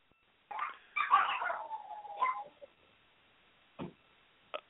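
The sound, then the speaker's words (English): A dog in a home recording studio lets out a drawn-out, wavering whine lasting about two seconds, followed after a pause by two short, sharp yelps, with no talking. “I think there's a dog in the uh, recording studio.”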